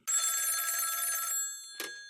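A telephone rings on an outgoing call with a bright, trilling bell for just over a second, then stops; a brief click-like blip follows. No one speaks, and the ring sounds clear.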